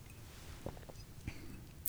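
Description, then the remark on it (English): Quiet mouth sounds of someone sipping coffee, with a few soft wet clicks and small swallowing noises spread across a hushed moment, no talking. “So, I'm going to take a little coffee sip one moment.”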